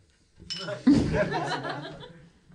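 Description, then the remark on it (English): A drink is knocked against a podium in a toast, one solid clink followed by a short ringing rattle, with soft chuckling and voices around it. “Why'd you bump it on the podium? Time and place. That's how I cheers.”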